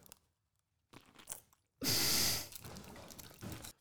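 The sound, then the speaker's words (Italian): A loud, wet crunch as someone bites into a huge pickled cucumber, followed by moist chewing sounds, with no talking. “ne mangio un morso.”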